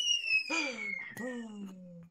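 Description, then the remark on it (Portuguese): A kettle heating water for chimarrão whistles with a steady, shrill high tone, while two lower, voice-like sliding tones start abruptly and fade beneath it across about two seconds. “Cara, pelo barulho é pro chimarrão.”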